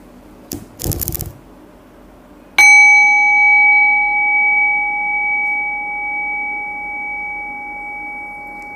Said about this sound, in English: So I'll ring the bell and then we'll get started.